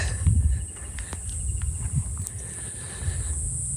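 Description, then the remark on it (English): A steady, high-pitched drone of cicadas buzzes continuously outdoors on a sunny day along a small, narrow paved way above a foggy coast, with birds, the low hum of a distant jet and a few faint clicks underneath. No one speaks. “You can hear the cicadas the birds, the low hum of a distant jet.”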